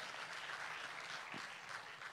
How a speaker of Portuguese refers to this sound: Que quem fez o curso da MCI cresceu espiritualmente, não cresceu no aprendizado, deu uma salva de palmas para Jesus, melhora, faz algum curso, faz alguma coisa.